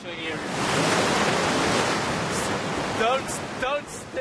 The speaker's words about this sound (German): Die Flut kommt zurück. In ein paar Minuten wird das Wasser die Felsen wieder vollständig unter sich bedeckt haben.